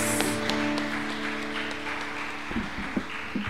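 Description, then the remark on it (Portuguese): A church audience applauds the Lord, a dense wash of clapping from many hands, with a sustained musical tone humming underneath and a few sharper claps standing out near the end. “Você pode aplaudir o Senhor, amém?”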